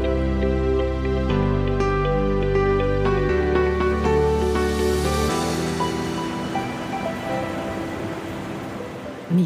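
Sea waves wash and rush steadily on the shore on a morning with the sun still hidden behind clouds, emerging over the second half as music with deep stepped bass notes fades beneath them; the surf is moderately loud, with no voices.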